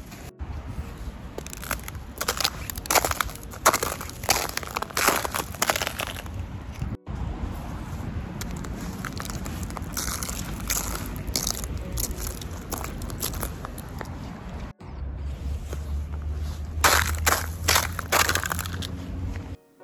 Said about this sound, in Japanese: まあ、雪の音というよりもちょっとうっすら雪がかぶった草が凍ってるんですね凍った草を踏みしめる音まあ霜踏んでるような感覚ですね